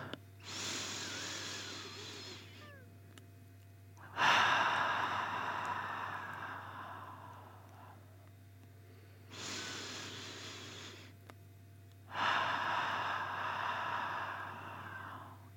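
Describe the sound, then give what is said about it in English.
Slow, deep breathing as part of three deep breaths in through the nose and out through the mouth: two long nasal inhales alternating with strong, airy exhales through the mouth, each breath lasting a few seconds with brief pauses between, no talking. “We're going to do three deep breaths in our nose and out our mouth.”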